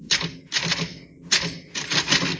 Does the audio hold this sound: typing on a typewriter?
yes